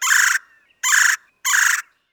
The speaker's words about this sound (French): Son aire de répartition, c'est des grands lacs et du sud de la Nouvelle-Angleterre au golfe du Mexique. Ses habitats, les bois, bosquets, vergers et les banlieues. Et comme d'habitude, l'habitude, voici la voix de l'oiseau à l'honneur aujourd'hui.